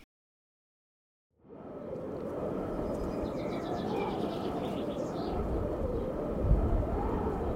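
Steady outdoor countryside ambience begins after a second of silence, with pigeons or doves cooing and other birds chirping over a low rumbling background.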